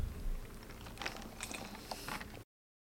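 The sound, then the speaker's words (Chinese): A quiet sip from a drink: a few faint, soft mouth clicks and small swallowing noises spread over about two seconds, with no talking. “对，刚刚在喝了一口。”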